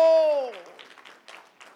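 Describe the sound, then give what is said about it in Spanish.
A church audience applauds Christ during a morning worship service, a steady patter of many hands clapping that rises and falls, following a held, fading vocal note at the start. “si está en la casa de Dios en esta mañana, viva el momento, alabe a Dios, glorifique a Dios, exalte a Dios, dele más fuerte el aplauso a Cristo y a su nombre, y a su nombre, viva el momento.”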